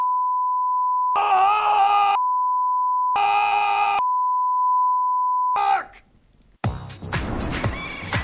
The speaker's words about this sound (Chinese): 好，说到这儿，大家不知道注意到了没有？就是哈哈咱们在这里用到了大量的“哔”的声音来遮盖这个脏话，这是我自己遮的啊，人家原来剧里可没有。